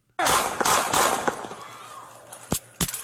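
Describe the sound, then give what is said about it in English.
A rapid string of loud, sharp gunshots emptying a magazine, about four cracking in quick succession with ringing echoes, then a brief pause before two more shots. “Empties one clip.”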